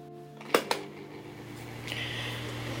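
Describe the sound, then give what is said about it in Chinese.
An electric fan runs with a steady low motor hum and airy whir, two sharp clicks early on, then the breathy rush of air grows a little louder and stays even to the end; an electric fan running in Germany during the summer of 2022. “最后的话，我想给大家听一听最能代表我这个夏天的声音，就是我的电风扇的声音。”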